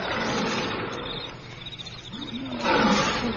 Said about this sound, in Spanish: De pronto oyeron un rugido.